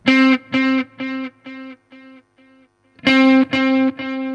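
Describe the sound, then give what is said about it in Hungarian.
A gritty, distorted guitar effect tone, set to a slightly worn-out setting, repeats short sustained notes at one pitch in a steady rhythm, fading softer over several hits, pausing briefly, then returning loud; the sound is harsh and slightly worn, with no voices. “mm itt azért hallatszik, hogy, hogy van egy típusú nyökögés a dologban.”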